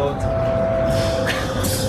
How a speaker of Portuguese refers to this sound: Então hoje, eu e meu primo, nós estamos aqui em Vancouver, no meio do metrô agora, e nós vamos falar sobre.